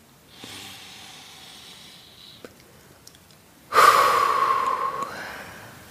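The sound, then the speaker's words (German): A slow, deep breath: a soft, airy inhale lasting a couple of seconds, a short pause, then a louder, rushing exhale. No one speaks. “Atme nochmal ganz tief ein.”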